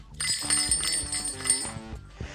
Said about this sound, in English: I also bought these two little wristbands that have uh, a different timbre of jingle bell on them